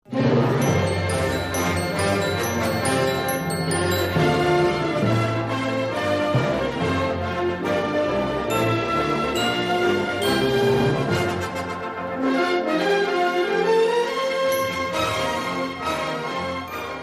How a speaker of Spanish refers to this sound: Bueno amigos, hemos escuchado solamente unos compases de esta canción